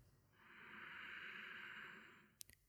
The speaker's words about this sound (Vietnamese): Cùng nhau hít một hơi thật sâu.